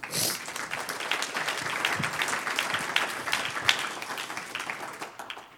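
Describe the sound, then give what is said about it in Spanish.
Sustained applause from a crowd, a dense wash of many hands clapping at steady loudness for several seconds, with a few sharper claps standing out, given as applause to the Lord. “Un aplauso al Señor.”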